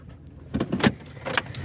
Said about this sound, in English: got back into the car, she filled me in.